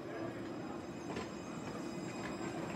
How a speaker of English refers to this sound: The engine was puffing and the bell was ringing, for the train was about to start off again.